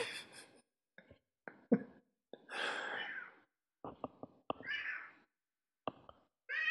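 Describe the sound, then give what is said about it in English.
A cat meows several times while walking around a foyer, a few drawn-out, slightly raspy calls separated by short bumps and pauses, with no one talking. “He was walking around the foyer meowing.”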